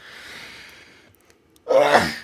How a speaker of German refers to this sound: Gesundheit. Gesundheit.